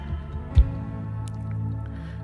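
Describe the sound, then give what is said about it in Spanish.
Steady flowing water from a waterfall with soft dripping and squishing sounds, a continuous low wash and one brief louder splash near the start, no voices present. “Comienza a escuchar Comienza a escuchar esos ruidos del agua, esos, esos ruidos de esa cascada.”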